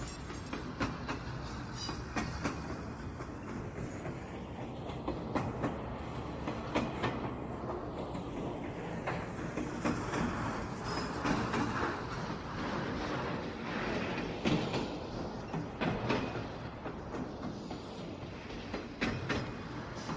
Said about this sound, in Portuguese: Então vamos viajar virtualmente pelo Agreste no trem do forró.